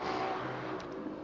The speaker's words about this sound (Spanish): Perdón por el ruido de las motos, estamos en casita. Le mandamos saludos a las motos que pasan fuerte.